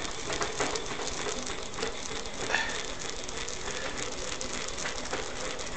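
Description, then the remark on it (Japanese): Steady, continuous grinding of sesame seeds in a mortar: a dense, gritty scraping and crackling rasp that churns on evenly throughout, with small rhythmic surges and no voices. “はい、はい、はいあとその間にごまをすって。”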